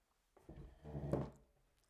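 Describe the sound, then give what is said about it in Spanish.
An uncomfortable chair shifts and creaks as it is adjusted, a single dull wooden thunk and scraping groan lasting about a second, with no one talking over it. “Perdonad, pero no estoy nada cómodo con la silla.”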